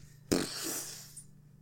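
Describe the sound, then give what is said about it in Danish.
A voice imitates an explosion, meant as the sound of a head exploding: one sudden, breathy burst of noise that swells and then fades out over about a second, with no speech. “Det var lyden af mit hoved, der eksploderede.”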